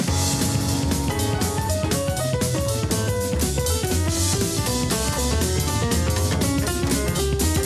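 A loud, full-band pop track with bright keyboard chords and melodic lines over steady bass and drums, playing continuously with a bouncy rhythm and no talking.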